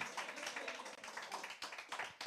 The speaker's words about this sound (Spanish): Alguien dé un aplauso fuerte al Señor en esta mañana.